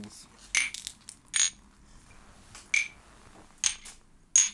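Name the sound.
glasses clinking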